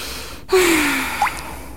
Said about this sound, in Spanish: Un leve jadeo, y con él el vértigo del recuerdo.